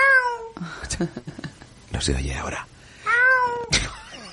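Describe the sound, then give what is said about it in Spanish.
A person imitates a cat's meow twice, fairly loud, with drawn-out bending cries at the start and again near the end, and a little speech in between. “Ese es un gato, pero es un gato falso.”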